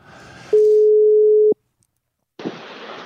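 One loud, steady electronic ring tone of an outgoing phone call placed live during a radio broadcast, lasting about a second, followed by a brief silence and then a burst of hissy line noise.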